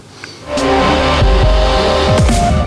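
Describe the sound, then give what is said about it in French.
A short theme jingle kicks in after a brief quiet moment, loud and full, with sustained tones over a deep rumbling bass and quick rising swoops near the end. No one speaks. “C'est le sport qui, qui vous fait vibrer dès que je mets cette petite musique là”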